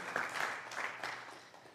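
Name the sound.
audience applause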